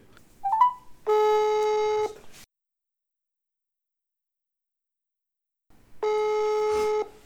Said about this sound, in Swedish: Ingen svar när vi ringer.